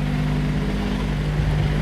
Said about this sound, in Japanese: やっぱ外で撮るとうるさいね、いろいろね。結構ね、車通りの多いところを通っているのと